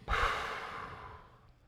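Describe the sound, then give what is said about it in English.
A single long, deep exhale during a breathing exercise, released after holding a belly breath: breathy, starting with a strong rush of air and slowly tapering off over about a second and a half, with no talking. “Hold the breath, and then when you breathe out, just dump the breath.”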